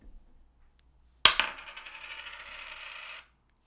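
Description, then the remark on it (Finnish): A tossed coin strikes a hard surface with a sharp metallic clink, then spins and rattles in a rapid, ringing wobble for about two seconds before abruptly settling. Fairly loud, with no talking. “Veitetään kolikkoa.”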